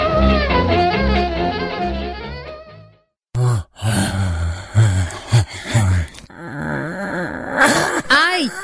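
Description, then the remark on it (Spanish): Music plays briefly, then cuts to several voices letting out drawn-out, wavering groans and moans, imitating zombies, overlapping in uneven bursts for several seconds. “Ya se escaparon los zombies.”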